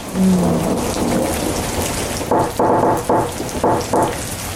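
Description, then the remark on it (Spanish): A heavy thunderstorm: a dense, steady roar of pouring rain with a deep rumble of thunder at the start, followed by several rhythmic surges as the downpour intensifies. “Una tormentota.”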